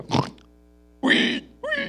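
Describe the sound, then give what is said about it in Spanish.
A voice imitates a pig with three short grunting snorts, the first rough and low, the later two higher and more nasal, separated by brief pauses. “Por más perfume que usted le ponga al chancho, después de bañarlo y el lacito rojo, y está el chanchillo”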